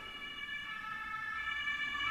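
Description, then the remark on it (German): A police siren wails with a steady, piercing tone, growing slightly louder as it approaches through the short stretch, with no one speaking over it. “Ich habe übrigens gelogen, das war die Polizei, es war kein Krankenwagen.”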